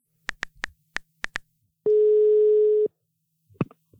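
A phone call being placed: six quick keypad beeps, then a single steady one-second ringing tone, followed by a soft click. No one speaks.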